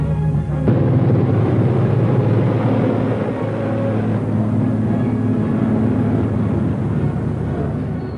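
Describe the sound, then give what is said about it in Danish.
Tanks and tracked vehicles rumble along the streets of Brest-Litovsk on 23 September in a parade of German and Soviet troops, filmed for German propaganda: a loud, continuous roar of engines and grinding motion, steady throughout, with no voices. “Øh, kampvogne, der kommer kørende, bæltekøretøjer, der kører hen langs gaderne”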